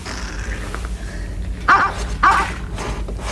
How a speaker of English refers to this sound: Do you hear something? Yes, what was that? It sounded like a dog barking. Ah, sounded like a dog barking right here. Yeah. A dog. A Springer Spaniel.